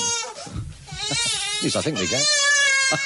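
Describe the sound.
A baby girl on the floor, who has just banged her head, wails in rising, wavering cries, loud and insistent, while adults keep talking in a broadcast interview and one briefly laughs over the fussing.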